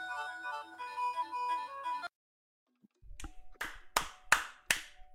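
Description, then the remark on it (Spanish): A bright tonal jingle plays for about two seconds and cuts off; after a short silence, five sharp hand claps ring out in a quick, fairly steady rhythm, each one crisp and loud. “Un oh freaking aplauso, brother.”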